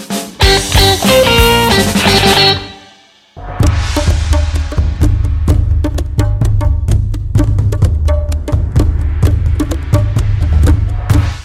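Instrumental music plays steadily with no voices, a dense harmonic passage cutting out briefly before a punchy beat with heavy bass and sharp percussive hits resumes at full volume.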